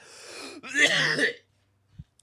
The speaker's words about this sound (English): I'm coughing up lungs. That could be the baby coughing.